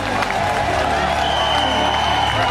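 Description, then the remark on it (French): A crowd of about 300,000 people along the channel at Les Sables d'Olonne applauds and cheers as a boat leaves port for a race start line in November 2016, in a dense, continuous wash of clapping and shouting voices, steady and loud throughout with no breaks. “300 000 personnes qui applaudissaient”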